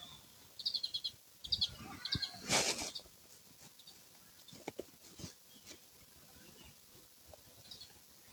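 Several short, high chirping bird calls come in quick bursts over the first few seconds, followed by softer scattered twittering against a quiet outdoor background, recorded while birdwatching at the Beijing Botanical Garden.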